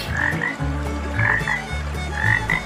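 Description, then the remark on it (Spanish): Toads croak in a steady, overlapping chorus, with repeated low pulsing calls and brighter trills rising about every second, fairly loud with no talking. “Poco a poco, en el arroyo fue apareciendo una interminable hilera de sapos.”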